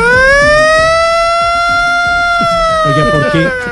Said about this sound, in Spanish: No, es que esa sirena también es protagonista. Sí, el 31 de diciembre en Colombia ponemos la sirena como si. o sea, uno no, pero la sirena es como para evacuar, para evacuar